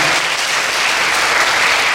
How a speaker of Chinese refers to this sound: 哇，拍手拍手，太厉害了！